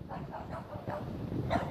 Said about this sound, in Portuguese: Ai, cachorro, já entendi. Você tá querendo me dizer em vira-latez que você não tem raça e que não gosta de mim. Você tem raça, que eu tô te vendo.